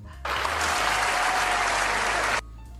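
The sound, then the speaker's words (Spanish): A steady burst of applause from a small group welcoming a first-time guest on a program, dense and even, lasting about two seconds before stopping abruptly, with no voices over it. “Uh, aplausos.”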